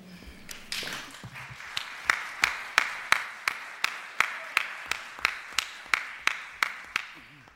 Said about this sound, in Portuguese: Eu acho que já estão a bater palmas cedo demais, mas pronto.